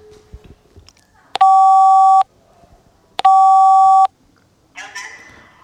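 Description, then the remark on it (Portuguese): A phone ringback tone from a call to the speaker's mother sounds twice, each a steady electronic burr of under a second with a pause between, loud, with faint background noise before and a short rustle after. “Bom, vou ter que ligar à minha mãe, sendo que vou ter que falar primeiro com o meu pai.”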